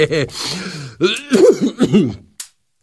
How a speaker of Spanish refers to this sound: Sí, eh, tengo unos problemas de salud. Eh, lo más terrible es esta tos que se niega a irse.